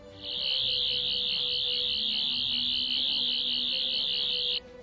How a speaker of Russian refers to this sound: Изначально она была синим фонариком на конце, а также к ней был добавлен традиционный звуковой эффект. А звуковой эффект появляется, когда используют отвертку. Это такой специфический звук, но лучше я не буду вам объяснять, а послушайте его.